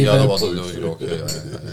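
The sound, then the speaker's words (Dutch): Glasses clink together in a toast, a few short bright chimes, mixed in with people talking over them. “Nogmaals. Gezondheid.”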